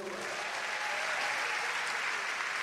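Steady applause from a church audience, a dense wash of many hands clapping at an even, sustained level throughout, with no distinct voices standing out.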